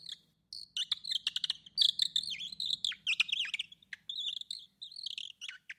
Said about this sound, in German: Der Prinz hatte auch eine Nachtigall, die so lieblich sang, als hätte sie alle Melodien in ihrer zarten Kehle.